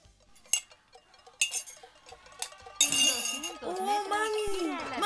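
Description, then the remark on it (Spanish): Protesters bang pots and pans: sharp metallic clangs ring out at irregular intervals, then a group of voices starts chanting loudly over continued clattering. “Cacerolazo, cacerolazo, cacerolazo, cacerolazo, cacerolazo, cacerolazo, cacerolazo, cacerolazo.”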